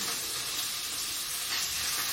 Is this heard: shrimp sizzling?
yes